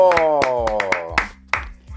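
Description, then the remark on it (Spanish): Several sharp, separate hand claps ring out loudly at an uneven pace over a sustained, falling vocal tone that sounds like cheering before fading out. “Un aplauso.”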